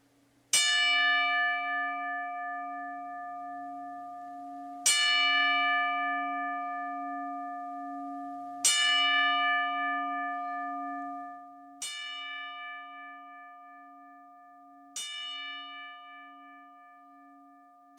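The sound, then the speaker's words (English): A single resonant bell is struck five times at slow, even intervals as part of a ten-bell salute for the late professional wrestler New Jack, each clear, loud strike ringing out and fading before the next, with no voices. “And I would like to pay our respects with a 10 bell salute.”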